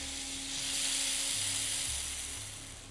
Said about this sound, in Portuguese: Pau de chuva para meditação, para trazer a tranquilidade.